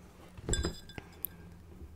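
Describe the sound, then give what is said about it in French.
A cup clinks against a hard surface, a bright ringing knock with a faint tonal shimmer, followed by a softer tap and a tiny high tick, then quiet. “Bon, ça c'est un bruit de tasse, c'est assez basique.”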